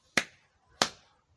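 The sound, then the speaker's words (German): Two sharp hand claps made while praying at a Japanese shrine, evenly spaced about half a second apart, each a crisp bright crack with a short fading tail, with no voices. “Und dann muss man sozusagen, um den, die Aufmerksamkeit des Gottes zu erhalten, zweimal klatschen.”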